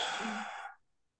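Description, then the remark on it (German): One deep, breathy exhale through the mouth during a guided breathing exercise, fairly loud, a soft airy rush lasting under a second before trailing off into silence. “Ja, wir atmen gemeinsam tief durch die Nase ein, halten kurz die Luft an und atmen weit aus dem Mund aus.”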